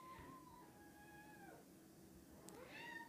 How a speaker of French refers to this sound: Euh, je suis désolé si t'entends un chat, c'est Tori, mon chat.